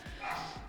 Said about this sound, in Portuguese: tem um cachorro latindo bastante. O Au Au tá nervoso. Eu entendo, Au Au, o que tá acontecendo?